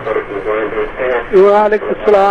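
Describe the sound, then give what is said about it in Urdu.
A radio plays in the background of a caller on a telephone line, its broadcast voice sounding muffled and thin, continuing steadily at moderate loudness for the whole stretch. “آپ ریڈیو کی آواز پیچھے بند کر ہاں، دیجیے”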